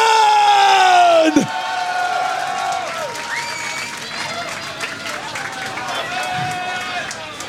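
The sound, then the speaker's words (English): A loud festival crowd at Decibel, Future District cheers and whoops for DJ Collusion, opening with a sustained high-pitched shout that drops off after about a second, followed by a dense wash of overlapping yells, whistles and applause that continues steadily. “Ladies and gentlemen, at the top of your voice, if you enjoyed, and I know you enjoyed, make some goddamn noise for DJ Collusion!”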